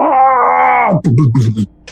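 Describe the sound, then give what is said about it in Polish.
A voice imitates a child falling down while fleeing an attic: a loud, sustained wail that slowly sinks in pitch, then abruptly drops into a few low, choppy grunting bursts before stopping. “czyli ten dzieciak by spadł”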